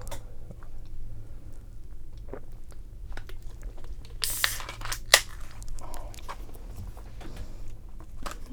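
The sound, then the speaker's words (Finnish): Someone chewing a dry sandwich, with soft, irregular mouth noises and a few sharper crunchy bites breaking through. There is no talking, only a low steady hum underneath. “Kauhean kuivaa, mä en halua syödä tätä enää.”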